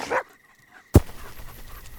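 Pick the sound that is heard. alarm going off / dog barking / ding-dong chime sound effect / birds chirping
dog barking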